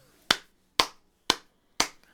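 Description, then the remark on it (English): Four crisp hand claps in a steady, even beat, about two per second, in a music lesson on making rhythm with the body, each a sharp bright smack with a quick decay and no voices. “We're going to explore several ways that we can make rhythm with our bodies, one of which is by tapping and clapping”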